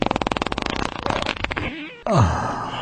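A rapid, loud volley of sputtering fart sounds, attributed to Bolsonaro and imitating shotgun blasts, crackles in quick succession, then trails into a drawn-out, descending fart with a final rumbling burst. No one speaks.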